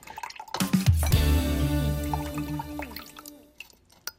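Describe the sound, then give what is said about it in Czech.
Excess water drains off grated potatoes set in a propped-up bowl, a steady trickle for a few seconds splashing into a container, then thinning out to a few last drips. No one speaks. “Slili jsme vodu, tu přebytečnou z těch brambor, které jsou nastrouhané, a teď začneme zadělávat opravdu těsto.”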